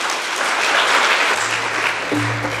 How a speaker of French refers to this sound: et vous demander de les applaudir avec la même chaleur, s'il vous plaît.